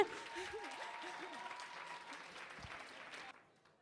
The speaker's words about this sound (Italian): Gli vorrei fare un grande applauso perché è stata molto paziente.